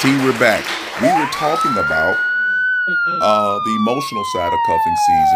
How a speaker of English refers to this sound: And we're back, and you hear that wolf howling in the background and the sirens going off.